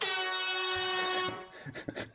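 A loud, steady horn blast used as a signal holds for over a second, a bright buzzy tone rich in harmonics, then cuts off into scattered clattery noises and short bursts, with an extra little honk at the end.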